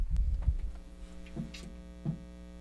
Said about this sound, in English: A little pressure release on your coffee. Yep, my coff my coffee mug started making funny sounds. That's a smart coffee mug.